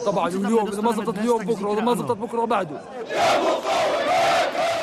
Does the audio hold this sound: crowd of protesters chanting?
yes